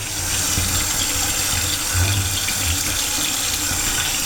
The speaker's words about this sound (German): Dann mal den Deckel auch ausspülen von dem Becher.